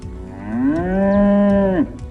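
A single long cow moo, loud and steady with a low droning pitch that rises slightly at the start and breaks off abruptly near the end, with no talking.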